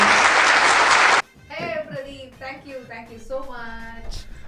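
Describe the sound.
A burst of audience applause welcoming a radio jockey at a live radio show event, loud dense clapping filling the first second, cuts off abruptly and gives way to a person talking.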